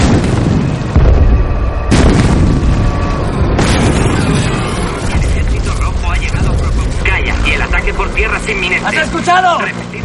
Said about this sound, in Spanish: avanza entre explosiones por la carretera.